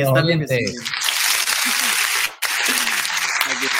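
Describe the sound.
A burst of applause from a small group, steady and fairly loud for a few seconds, with a voice speaking briefly at the start and faint talk beneath the clapping.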